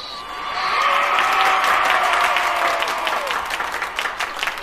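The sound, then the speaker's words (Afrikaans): A crowd claps steadily, a dense wash of many hands that swells within the first second and holds loud throughout, with a few brief tonal sounds threading through the applause. “Weer klap almal hande.”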